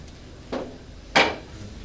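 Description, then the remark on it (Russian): Two short knocks, a softer bump followed by a firmer, louder clack, as a chair's legs are set down on a hard floor into the right-hand row, with no talking. “Ставит этот стул в правый ряд.”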